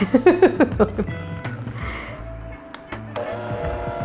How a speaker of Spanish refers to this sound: Ahora, es que viene el revolú, ahora cuídense ahí que cuando prende la batidora esa lo que hace es un chispoteo aquí, revolú.